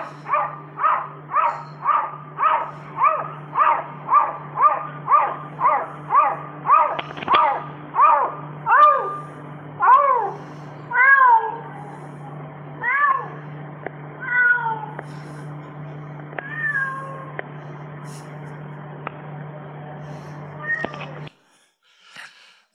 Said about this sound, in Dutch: Nou, wat je hier ziet in dit filmpje is een kat die heeft geleerd te blaffen als een hond. dus een kat die heeft, die heeft ontdekt van als ik blaf als een hond, dan, dan imponeer ik, dan maak ik indruk